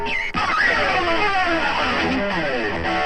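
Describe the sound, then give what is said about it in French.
A distorted electric guitar in rock music blares loudly from a record played on a record player with the volume turned up, a dense, gritty wall of sound with bending, wavering notes that barely lets up for three seconds; no one speaks. “Et soudain, une guitare saturée vient déchirer l'atmosphère.”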